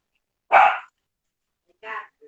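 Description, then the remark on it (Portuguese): A small dog gives one sharp, loud bark, then a second shorter, softer bark about a second later, with no talking over it. “Cachorrinho do do, do aí deu uma, deu uma estranhada.”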